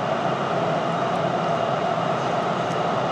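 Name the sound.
subway train running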